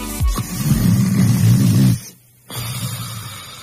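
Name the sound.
person snoring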